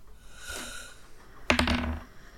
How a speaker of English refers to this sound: That misses. I roll a three on the dice, but yeah, that's plus nine, so it's nine.